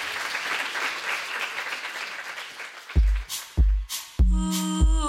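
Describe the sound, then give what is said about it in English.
An audience applauds author Mona Chollet in a dense, steady wash of clapping for about three seconds. Then come a few heavy low thumps and a bright tonal musical sting. “You can applaud. so we can hear you.”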